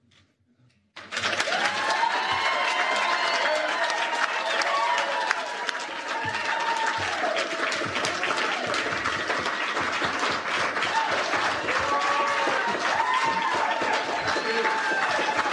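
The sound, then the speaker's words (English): A large audience bursts into loud, sustained applause lasting about 30 seconds after a brief moment of quiet, a dense steady wash of clapping with scattered shouts and cheering voices rising over it throughout. “the applause continues unabated for right. like a good 30 seconds”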